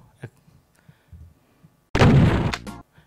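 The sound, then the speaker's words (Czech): A sudden loud video game explosion bursts out for under a second, a harsh crackling blast with low rumble, preceded by a few faint soft thuds in near silence. “Je to z nějaký strategie”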